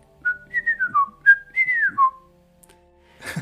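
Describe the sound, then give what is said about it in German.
A person whistles a bird-like call: a string of short, clear, sliding notes rising and falling in quick succession, fairly loud, followed by a brief rustle at the end. “Hat man das gehört? Ich habe gepfiffen, ja.”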